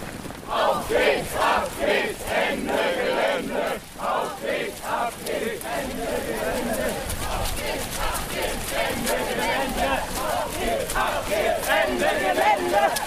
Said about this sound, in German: Plötzlich wird die Gruppe laut und beginnt zu rennen.